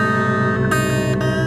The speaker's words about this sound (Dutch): Nu hebben wij onderweg naar hier toevallig een ingezakte gitaar gevonden.